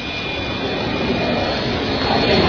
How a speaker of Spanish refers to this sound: ¿Qué es lo que viene por aquí? Efectivamente, vino un jet, un jet privado